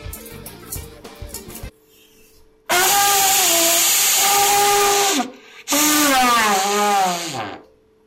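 Someone blows a toy pipe in two long, loud, breathy blasts with a reedy, wavering tone; the second toot slides downward at the end. Brief talk comes before the first blast.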